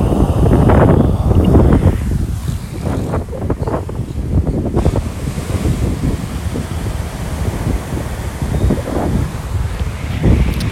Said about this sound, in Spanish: En verdad se escucha el ese viento bien, bien, bien fuerte ahora mismo.